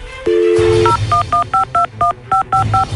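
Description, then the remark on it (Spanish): A phone number is dialed to call someone's girlfriend: after a brief steady tone, about nine short touch-tone beeps follow in a quick, slightly uneven rhythm, clear over a low background hum. “quédate en la línea telefónica, no hables, vamos a marcarle a Marcela, a tu novia”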